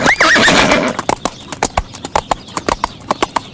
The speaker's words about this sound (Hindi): आज मैंने देखनो है कि था चार आमू सबसू अच्छो घुड़सवार कौन है चारू घोड़ा लेन टीला माते दौड़ा दिया